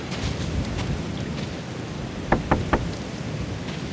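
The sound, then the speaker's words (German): Three quick knocks on the door of an old cottage, evenly spaced and fairly sharp, rising out of a steady wash of rain. No one speaks. “Ich klopfe mal.”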